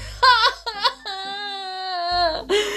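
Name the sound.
voice imitating sobbing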